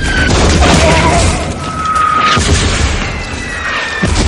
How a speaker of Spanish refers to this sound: Fernando Forrest corre bajo un bosque de explosiones.